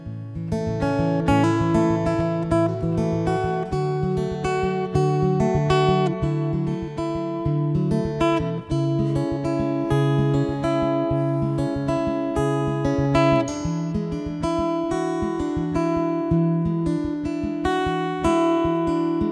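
A band plays live in the Tsugi Radio studio in the Folie L1 of the Parc de la Villette, with steady percussion under layered sustained chords and bass that shift every few seconds, loud throughout with no talking.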